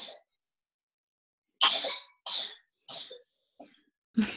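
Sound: coughing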